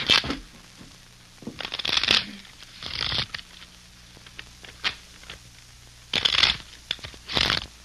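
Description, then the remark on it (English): A deck of playing cards being shuffled: several quick, crisp riffling bursts with brief pauses between, plus softer tapping and handling of the cards, with no voices. “Hey, I thought I told you not to shuffle.”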